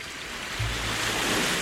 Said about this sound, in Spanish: Este es el sonido del mar. Los que nos hemos criado en una playa, pues con los ojos cerrados lo detectamos perfectamente, ¿no? El sonido, el sonido del mar.